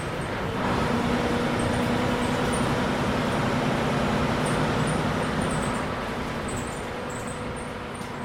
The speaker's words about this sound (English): The trip across Ireland was slow. The bus goes between 30 and 40 miles an hour.